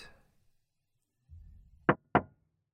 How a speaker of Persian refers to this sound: همون لحظه یکی زد به شیشه اول فکر کردم اشتباه شنیدم سرم آوردم بالا از پشت پنجره برف گرفته دیدم یه ماشین کنار ماشینم با فلشر آبی ایستاده. دوباره زد به شیشه.